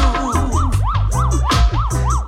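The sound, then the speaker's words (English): A loud police siren, coming from down the block, wails in quick rising-and-falling sweeps, about six cycles, layered over a thumping bass-heavy music track with no voices. “Hear siren coming from down the block.”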